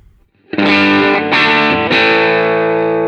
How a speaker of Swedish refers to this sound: Och nu med. Mm. Alltså det låter ungefär likadant fast liten... Transparent overdrive. Ja, men precis. Och sen en liten mid-punch där känns som.